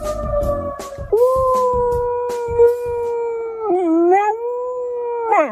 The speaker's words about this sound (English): There's this little corgi, whenever he hears a siren, he imitates it.